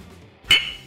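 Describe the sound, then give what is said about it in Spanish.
A single sharp clink of glasses touching in a toast, fairly loud, with a brief bright ring that fades quickly over a quiet background. “eso merece un trago, salud.”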